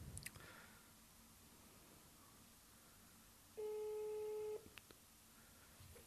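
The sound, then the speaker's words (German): A single steady telephone line tone sounds for about a second, a clear mid-pitched electronic beep rising out of quiet background hiss, with faint clicks before and after. “Hörst du das Piepen?”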